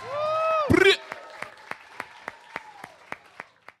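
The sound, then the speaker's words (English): Audience applause and cheering at the close of a live talk event recorded for ACMI: a brief voiced shout and a loud burst, then steady rhythmic clapping at an even pace, about three claps a second, moderately loud. “Make some noise”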